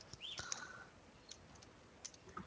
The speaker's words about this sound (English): Sorry, I'm busy typing. The show notes.